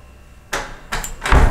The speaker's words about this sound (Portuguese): eu pra variar fui abrir a porta pro gato.